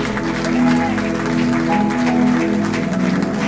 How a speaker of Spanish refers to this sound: Muy fuerte, muy fuerte. Que ese aplauso salga del corazón. Que salga desde el fondo de nuestro corazón.